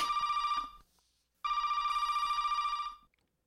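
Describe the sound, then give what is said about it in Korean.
A newlywed couple's telephone rings twice, each burst a bright, steady electronic trill at a fixed high pitch, separated by a short silence, with no talking. “신혼부부니까 다음 진도 나가려고 했는데 아, 전화가 오는 거예요.”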